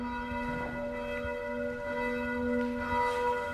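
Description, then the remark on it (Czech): Church bells ring out from the belfry of the Gothic Church of the Visitation of the Virgin Mary and St. Procopius in Hvožďany, a belfry standing apart from the church and built after 1691. Rich, sustained tones overlap and hum steadily, with fresh strikes layering in. Moderately loud and resonant, with no voices present. “Jednou z nich je, že zvonice je umístěna mimo hlavní kostel a byla postavena až po roce 1691.”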